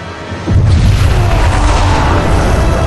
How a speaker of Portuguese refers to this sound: Você é aquela bola de fogo no céu, cara, e vai pedaço de nave, de asa, de tudo pra tudo cortelado